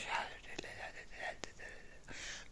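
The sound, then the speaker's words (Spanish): A voice imitates faint, unintelligible whispering, like people talking too quietly to be understood, a breathy hiss of murmured syllables with a few sharp clicks, soft, lasting a couple of seconds with no clear words. “Entonces, él dice que le bajó a la radio y empezó a poner atención, pero dice, pero es que en serio era tan bajo que nada más se escuchaba como...”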